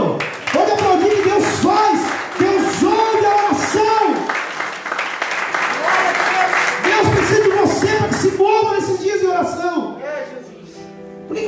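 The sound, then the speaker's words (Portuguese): An audience claps steadily and continuously, loud, while voices call out and cheer over the applause, which thins out near the end. “Pode aplaudir, mano.”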